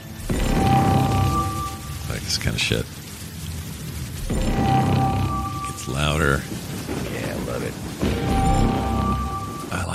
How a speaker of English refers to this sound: Now, one of my favorite things, actually, truly about the movie was some sound effect use, and I liked this. That was this was the sound of those perimeter things going off before oh, he found the thing in her throat.